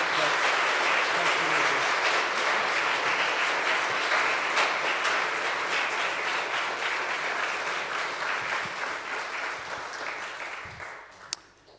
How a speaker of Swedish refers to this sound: En applåd.